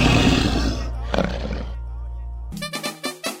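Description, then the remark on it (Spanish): A woman's loud, rough snore rumbles for over a second, harsh and roaring, then fades into quieter breathing before a run of short, choppy vocal bursts. “la mujer no me deja dormir. Oye, como te ronca, oye.”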